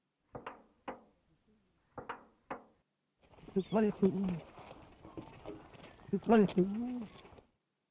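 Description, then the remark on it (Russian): A bird imitates a slamming door with four sharp thuds in two pairs, then follows with a raspy, grumbling speech-like phrase, "you bloody fool", loud, with no other sounds. “Видимо, именно там он и научился имитировать звук захлопывающейся двери и ворчать «ты чертов дурак».”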